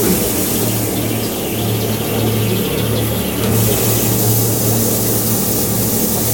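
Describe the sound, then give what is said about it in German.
A fog machine hisses loudly and steadily over a low droning hum, the spray running continuously from start to finish with a slight surge in brightness partway through, with no voices. “ganz neues Beispiel von großartiger Atmosphärengewinnung und Geräuschgeneration und allem ist das Sprühzeug. Man kann hier auch noch mal Sprühzeug machen.”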